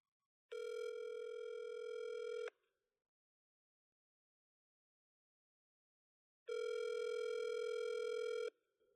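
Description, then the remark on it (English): Two long ringback tones from an outgoing phone call placed by a paramedic on the BHP primary line, routed through the Central Ambulance Communication Center dispatch diverter to LHSC, each about two seconds of steady electronic ringing, separated by several seconds of silence. The rings are clear and loud, with no talking. “So you hear the two rings.”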